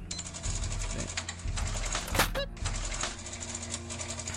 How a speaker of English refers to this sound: The guy on the till was having a bit of trouble with the cash register because he was new, apparently.